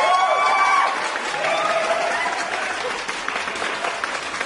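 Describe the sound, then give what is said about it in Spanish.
A standing audience applauds steadily for several seconds in homage to Sister Rosette, dense clapping with a few whistles and cheers rising at the start before settling into sustained, even applause. “Aplausos, maldita sea.”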